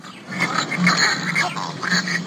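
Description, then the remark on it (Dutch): A northern bald ibis call played from an educational display: a run of hoarse, guttural calls, rasping and croaking in quick succession for a couple of seconds with no talking over it. “Als je bijvoorbeeld zegt, ik vind jou aardig, dan klinkt het zo ga je nou een stap verder en zegt: Ik houd van jou, dan is het meer dit.”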